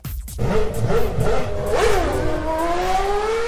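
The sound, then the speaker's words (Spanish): A fast car's engine revs hard and accelerates, its pitch climbing through several gear shifts before settling into a sustained high whine, loud with no talking. “Qué buen desempeño de este auto. Es muy rápido.”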